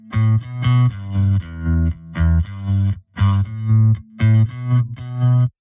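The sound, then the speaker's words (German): A loud, driving bass groove in repeated punchy notes, doubled by a buzzy, bubbling synth with distorted, effected tones, playing steadily without any voices. “gedoppelt mit so einem Synthi-Sound und der blubbert irgendwie auch umeinander und klingt total geil”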